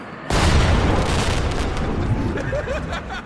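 A loud explosion bursts in suddenly after a brief quiet moment, a deep booming roar that fills the space and slowly rumbles and crackles away.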